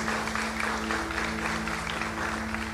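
An audience claps in praise of Jesus, a dense, continuous patter of many hands with no voices standing out, while a low, sustained organ-like hum holds underneath throughout.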